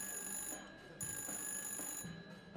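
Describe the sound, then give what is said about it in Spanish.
A telephone rings in a home on the third floor of a building in Alexandria, a call from a young daughter of immigrants living in the United States: repeated electronic bursts, a bright steady warble pulsing roughly once a second, fairly quiet with no one speaking. “En esta casa llena de música, suena un teléfono.”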